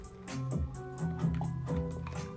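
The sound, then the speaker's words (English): Soft liquid sounds of a speaker sipping water, with small wet slurps and swallows in an uneven rhythm and a faint low hum underneath. “excuse me, needed some water.”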